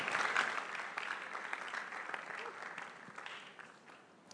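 A crowd bursts into steady applause to welcome a woman coming to share her testimony live, dense overlapping claps forming a bright, hissy wash that holds strong and then gradually thins out over a few seconds.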